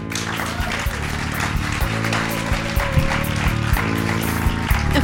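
An audience applauds, a dense, steady wash of many hands clapping that holds at an even level for the full five seconds, with a low sustained hum running underneath.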